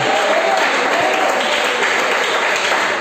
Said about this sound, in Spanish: Dele ese aplauso al Señor si usted lo reconoce así. En esta noche la iglesia reconoce que la gloria es de Él.